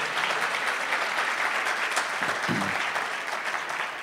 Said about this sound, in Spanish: Tu presencia está acá como está la de tu Hijo Jesús. Cuando Él está, tú estás con Él. Le damos un aplauso María. Gracias.